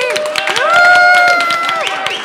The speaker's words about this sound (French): mais j'aimerais qu'on leur fasse une bonne main d'applaudissements pour le public en délire.